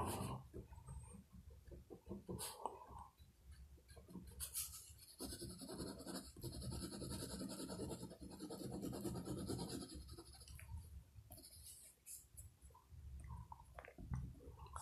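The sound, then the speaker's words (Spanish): Pencil scratching across paper while drawing, in steady, continuous strokes with brief pauses and bursts of rapid shading. No one speaks. “hay muchos espacios muertos no soy muy bueno hablando y dibujando a la vez.”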